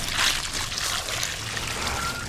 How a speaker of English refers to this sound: We catch that water. And then when that container gets full, we pour that into a pail. When that gets full, we water outside with it. So then we'll go in the back. We'll just put it here like the roses.